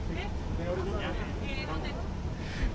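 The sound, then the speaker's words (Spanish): A Bay of Cádiz tram slowly pulls away from the station on its first run, its steady low rumble and faint whine filling the scene, with murmured voices and a sudden sharp knock right at the end. “el tranvía de la Bahía de Cádiz. A paso muy lento de momento. se oye, se oye. Llega el sonido.”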